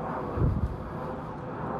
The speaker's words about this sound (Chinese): 现在有个飞机飞过，我不知道大家有没有听到。